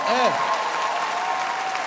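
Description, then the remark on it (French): An audience at a gala claps in a steady, dense wash of applause lasting the whole moment, with a brief voice audible at the start beneath the clapping. “Franchement, je vous jure, gardez vos applaudissements.”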